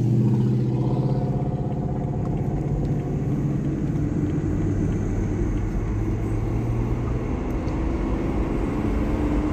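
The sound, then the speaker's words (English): A steady engine rumble with low droning harmonics, like a car idling and creeping along in traffic, continuous and fairly loud throughout with no voices. “Hey, get that truck the fuck out of my way.”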